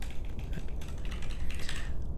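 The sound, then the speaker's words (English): Rapid clicking of keys on a computer keyboard as someone types the search "Endeavor Master Set", a steady run of dry taps for a couple of seconds with no voices over it. “If I can type, this is very typing's hard, guys.”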